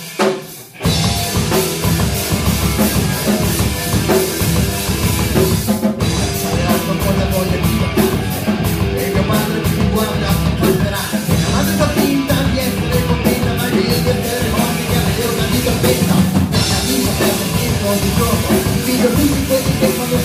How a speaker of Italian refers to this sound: No, no, ma diciamo no, che c'è un gruppo rock che fa rock che va Ascoltiamolo per favore.